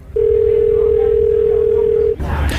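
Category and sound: signal or alarm, telephone call dial tone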